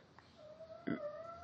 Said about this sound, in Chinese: 然后刚刚我家的猫咪在旁边喵喵叫，如果你没有听到的话，OK。